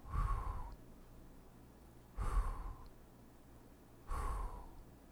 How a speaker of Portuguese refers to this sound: Vamos fazer agora cinco vezes essa respiração, certo? Então vamos lá, todo mundo pronto, todo mundo junto. Eu vou fazer as contagens e vocês respiram.